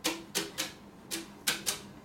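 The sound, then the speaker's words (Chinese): Six soft, hissy brush taps with a swishy, papery attack, landing in a loose uneven pattern of pairs, a pair of drum brushes played alone in a left-left-right swing practice pattern at a steady tempo, with no voices. “建议大家能够赶快去购买这样子的一双鼓刷啊”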